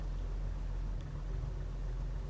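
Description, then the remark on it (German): The heavy engine of a car weighing 20 Zentner (about 1,000 kg) rumbles steadily and low throughout, a continuous deep drone with no voices over it. “Mein Wagen ist 20 Zentner schwer.”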